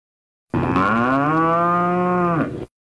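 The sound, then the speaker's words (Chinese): A single long, loud cow moo with a steady low pitch that holds for about two seconds, then dips and cuts off, with no talking around it. “桌子上的一头金牛就复活了。牛来了， 牛来了！”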